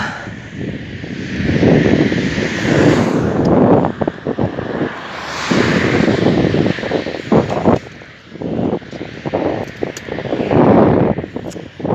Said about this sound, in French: des poids lourds sur route, une autoroute euh, toute proche